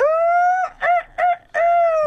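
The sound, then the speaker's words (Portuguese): A person imitates a rooster's crow: one loud, two-second cock-a-doodle-doo with a long opening note, two short choppy middle bursts, and a drawn-out ending. “Você é um galo domador? Eu sou. Mostra esse galão aí.”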